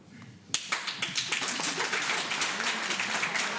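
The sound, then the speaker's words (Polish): Hand clapping, begun by the speaker's assistant, breaks out suddenly after a quiet moment, a dense run of sharp, bright claps with no pauses, like several people clapping together at a steady, fairly loud level. “Jak ona się klaskaj, to wy nie, nie, nie klaskajcie za nią.”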